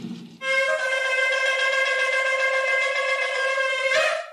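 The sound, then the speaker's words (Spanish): A shofar sounds a teruah call, one loud, sustained, brassy blast lasting about four seconds, steady with a slight waver, heard alone with no talking. “Esa es la trompeta para el lanzal.”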